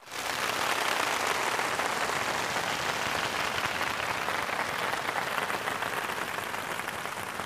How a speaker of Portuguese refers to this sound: Agora é a hora da palma. Vou até anotar aqui, é 33 e 16, a hora que as palmas vêm e fazem um show.